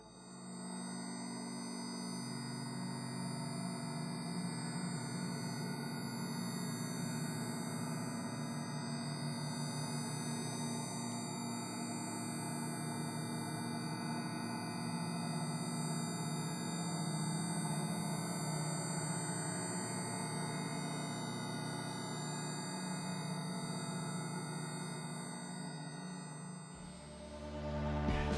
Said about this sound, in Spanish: ¿Quieren saber cómo se escucha una telaraña? Así se oye.